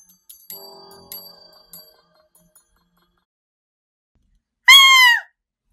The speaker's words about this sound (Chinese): 我猛然从睡梦中惊醒，耳边愈发清晰而强烈的尖叫声，随着一身冷汗冰凉了心神，才发现那不是梦境。尖叫声是从窗外对面人家传来的，或许是邻居家在打架吧，声音怪瘆人。